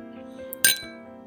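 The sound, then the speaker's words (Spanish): Glasses clink together once in a toast, a bright ringing strike that lingers briefly over a steady low background hum. “Por favor, brinde conmigo. Salud.”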